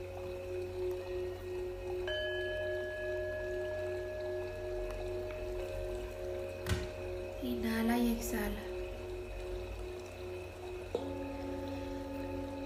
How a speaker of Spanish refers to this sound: Tiene una pequeña cascada puedes escucharla en este momento. Visualiza cómo el agua cae suavemente y te llena de relajación.